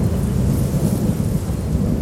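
A heavy thunderstorm: deep, continuous rumbling thunder rolls beneath a steady wash of loud rain, with no pauses and no voices throughout.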